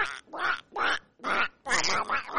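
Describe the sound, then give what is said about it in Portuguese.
A person does a squawky Donald Duck voice imitation, a run of four or five raspy, buzzing quacking bursts with short pauses between, fairly loud. “Tutorial, como faz pra imitar o Pato Donald?”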